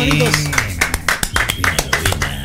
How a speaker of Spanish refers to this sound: Un gran aplauso, un gran aplauso, un gran aplauso